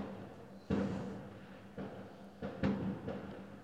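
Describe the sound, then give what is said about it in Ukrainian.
Several muffled booms go off at irregular intervals, fireworks rolling and echoing faintly against a quiet background hum, with no one speaking. “Тут хтось тішиться феєрверками? Так, да, тут тішиться феєрверками.”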